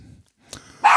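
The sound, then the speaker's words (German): A pet dog barks loudly, a sharp bark near the end following a brief quieter yelp, with low murmuring at the start. “das ist mein Hund, ähm, pst, oh”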